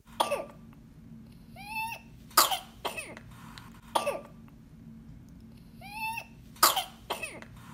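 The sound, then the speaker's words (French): An infant's whooping cough (pertussis): sharp coughing bursts in fits, broken by high, drawn-in whooping breaths with a rising, strained pitch. The pattern repeats twice, with no talking. “Le chant du coq de la coqueluche.”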